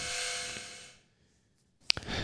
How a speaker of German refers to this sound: Das war die Klingel, ha? Ja, hier klingelt es an der Tür. Können wir mal ganz kurz Pause machen? Ja. Äh, ja. Ich muss mal kurz, äh, ja, ich glaube, wir kriegen ein Paket.